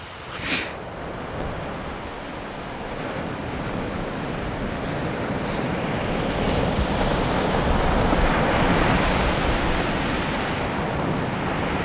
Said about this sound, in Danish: I dag viser Vesterhavet sig ikke fra sin flotteste side. Vandet er en smule mindre gråt end himlen, men bølgerne er der, og derfor er surferne på plads.